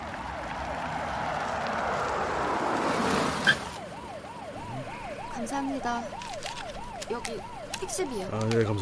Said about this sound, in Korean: 아니 근데 학교에 뭔 일이 있나? 경찰차가 다 출동하고.